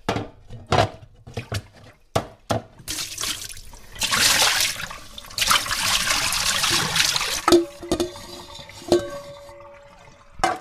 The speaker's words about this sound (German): Und jetzt kippe ich das Wasser mal ab für meine Himbeeren, die ich entsafte, und die sammle ich gleich in einem Sieb.